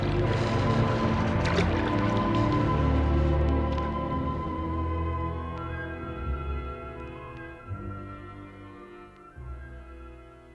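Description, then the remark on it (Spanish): A rowing boat, pushed off from the pier stones by the boatman's oar, glides bow toward Cádiz through the calm waves of the bay at rising tide by moonlight, with soft sloshing and splashing from the oars against a steady wash. No one speaks, and the sound fades slightly toward the end. “Subía la marea y el barquero empujaba con el remo las piedras del muelle, alejando la embarcación que se deslizaba con la proa Cádiz, cortando las mansas olas de la bahía.”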